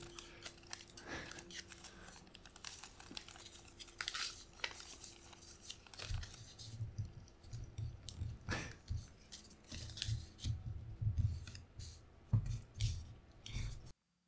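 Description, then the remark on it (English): Paper being folded, one layer towards the center, with soft crinkling rustles and sharp creasing scrapes coming in irregular bursts over a quiet background, no one speaking. “Yes, just so one layer. Towards the center.”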